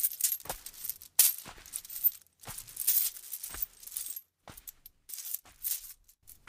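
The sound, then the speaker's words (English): Gold and precious stones clinking together in a bag slung between a camel's humps, a bright jingling that comes in uneven bursts with brief pauses, rising and falling with each long step of the camel in a caravan. “With each long step the camel's legs made, the riches clinked together in their bag, slung between the camel's humps.”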